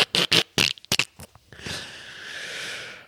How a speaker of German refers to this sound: Ich, ich klicke wieder mit der Zunge. Ich bin zu aufgeregt. Immer wenn ich in Euphorie falle, dann macht's.